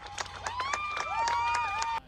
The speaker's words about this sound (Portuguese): recebeu alta o último paciente que estava internado no hospital de campanha no Central Park, em Nova York. Muitos aplausos e comemoração. O último paciente deixou o hospital numa maca.